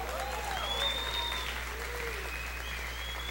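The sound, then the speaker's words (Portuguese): Steady applause from a sizable audience fills the whole stretch, a dense wash of clapping at moderate volume with faint whistles and murmuring voices mixed in. “Você que está aplaudindo, tenha vergonha na cara e a padrinho.”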